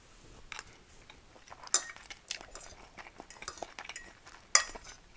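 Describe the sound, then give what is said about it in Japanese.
Cutlery clinks and scrapes against a plate while someone eats spaghetti, with two sharp, bright clinks standing out among softer scraping and faint chewing noises; no one speaks. “この140円で僕は今スパゲティを食べてる”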